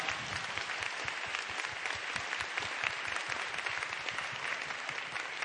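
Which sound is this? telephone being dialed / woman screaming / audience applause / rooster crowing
audience applause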